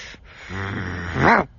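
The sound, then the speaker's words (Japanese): A person imitates a dog with a low, drawn-out growly bark, a short breathy onset followed by a rising, strained yelp at the end, close and fairly loud. “いや、これね、僕聞いてて思ったんですけど、まあ、あの、僕の好きな、…の…ちゃんっておるんですけども、その子もすごい犬のモノマネが得意って言ってて、多分ね、飼ってる犬種同じですね。”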